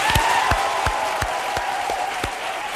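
Loud, steady audience applause fills the whole stretch, a dense wash of clapping cut by regular low thumps about three times a second and a faint sustained tone underneath.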